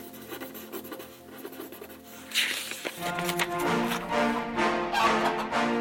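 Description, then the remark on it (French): A pen scratches steadily across paper as a stenographer takes notes beside a judge, with quick, continuous strokes that grow a little louder and busier partway through. No one speaks. “À côté du juge, une sténographe prenait note de tout.”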